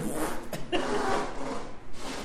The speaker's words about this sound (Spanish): Lo que suena es una cinta Una cinta adhesiva de la ancha. una cinta adhesiva, están empacando una caja. Sí, están cerrando una caja, sí.